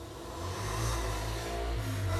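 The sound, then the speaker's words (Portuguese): A motorcycle engine drones past on the street, a steady low rumble that swells louder partway through and holds, with no voices over it. “Isso é uma moto aqui na rua.”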